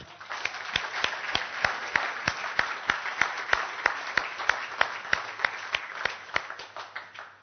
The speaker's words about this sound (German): Wir haben ja doch etliche Leute, die auch unseren Livestream verfolgen. und das ist einfach etwas ganz, ganz Tolles. Vielleicht geben wir denen mal kurz einen Applaus.